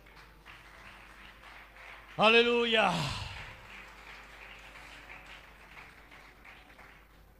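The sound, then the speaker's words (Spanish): An audience at a church service claps for God steadily in the background throughout, a soft, diffuse patter of many hands, while a loud voice rises over it with a brief sung shout partway through. “Dale ese aplauso fuerte a Dios.”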